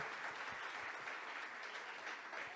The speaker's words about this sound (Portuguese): Vamos dar um aplauso para eles que eles merecem.